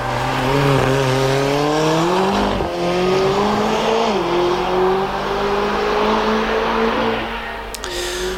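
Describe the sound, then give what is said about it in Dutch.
A McLaren Formula 1 racing car engine screams loudly, its pitch climbing through several gear shifts with brief dips in between, continuous throughout with no voices. “Eh, de Formule 1-auto's van McLaren.”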